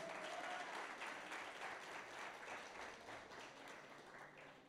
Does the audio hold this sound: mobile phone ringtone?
no